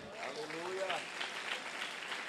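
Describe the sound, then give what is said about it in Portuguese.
Dense, continuous audience applause during a sermon, given at the call to applaud God, rolls on for a couple of seconds, with a voice briefly calling out over the clapping near the start. “Aplaude ele, aplaude.”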